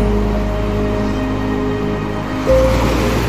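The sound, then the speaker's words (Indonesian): A steady, loud rush of ocean surf washes continuously against the shore, swelling slightly toward the end, with a faint low hum beneath and no voices. “aku menguburkan sebagian tubuhku di tepi pantai ini.”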